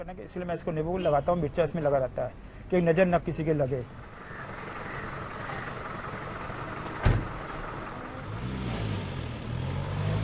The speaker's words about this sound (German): Sein Taxi, der Ambassador, ist nicht mehr der schönste. Aber Liebe macht blind, in diesem Fall auch taub. Er poltert, rattert, klappert. und die Sitze, sie quietschen.